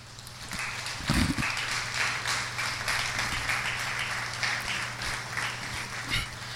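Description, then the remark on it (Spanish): An audience at a church sermon applauds steadily for several seconds, answering the preacher's call to applaud the King: a dense crackle of many hands clapping at an even level, with a low hum beneath and a couple of dull thumps. “¿Le puede dar un aplauso al rey?”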